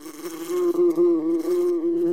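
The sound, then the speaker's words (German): A steady buzzing of honeybees flying out from their hive, a sustained droning hum with slight wavering in pitch, heard on its own without any talking. “Die krabbeln dann schon bei 8 Grad zum Teil oder manchmal sogar noch drunter krabbeln die aus der Beute, wärmen sich an der Beutenwand außen in der Sonne auf und wenige Sekunden später starten die und fliegen los.”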